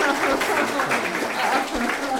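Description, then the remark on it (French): An audience claps together in a dense, steady burst of applause lasting a couple of seconds, with a faint murmur of voices mixed into the crackling wash of hands. “Donc euh, voilà, on va applaudir parce que c'était quand même on a.”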